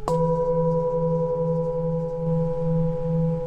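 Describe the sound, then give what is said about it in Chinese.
An old singing bowl is struck once and rings on with a long, steady hum, layered overtones sustaining while the low tone pulses gently in a slow wobble. No voices. “这个我敲现在是老的钵”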